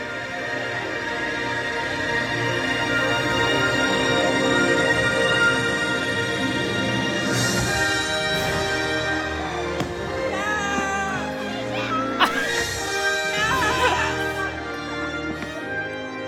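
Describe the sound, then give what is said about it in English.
A crowd screams and cheers at a nighttime fireworks show at the Magic Kingdom, loud sharp bursts cracking overhead while music plays steadily beneath. The shrieks swell after each blast, energetic. “that wasn't me, but that would have been me yes. screaming. Pretty much everybody, I think.”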